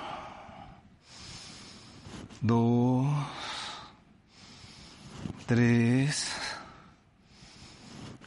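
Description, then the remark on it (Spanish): Deep, slow breaths drawn in and pushed out during a short breathing exercise to recover breath after a workout, two long airy cycles, each followed by a voice counting aloud before the next breath. “Vamos a hacer una pequeña respiración.”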